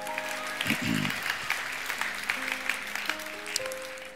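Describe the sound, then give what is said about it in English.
An audience claps in praise to the Lord, a dense, steady patter of many hands lasting the whole stretch, with a few sustained tones and a brief low voice-like burst early on. “Give the Lord a great hand clap of praise if you do that.”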